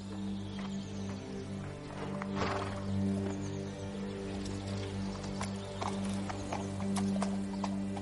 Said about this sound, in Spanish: Kat mira a Ned desde su caballo, gira y se aleja tras Roderick.